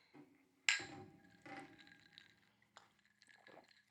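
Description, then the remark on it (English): A glass clinks sharply after a toast, then soft, steady sipping and swallowing follows for a few seconds, with a couple of small knocks and gulps as someone drinks at length. “Took a longer one that time just to make sure.”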